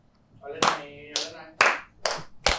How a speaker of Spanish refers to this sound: Estamos grabando ya. Estoy de acuerdo. Yo vamos, vamos a aplaudir para que se sincronice.